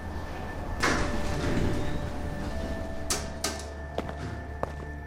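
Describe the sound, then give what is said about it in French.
Elevator doors slide open with a brief rushing whoosh over a steady mechanical hum, followed by several sharp clicks and thunks, with no voices. “Trop tard, les portes s'ouvrent.”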